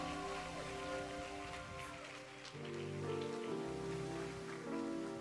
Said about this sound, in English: Oh, keep clapping. And as you clap, I see you coming forward.